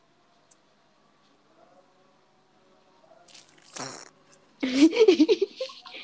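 A brief squeaky puff is followed by a loud, sputtering fart that rattles on for about a second in quick uneven pulses, with no talking around it.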